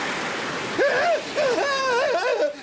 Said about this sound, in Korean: 갑자기 큰 파도가 밀려오는 바람에 시어머니와 두 아이는 홀딱 젖고 말았습니다. 정말 순식간에 일어난 일이었죠.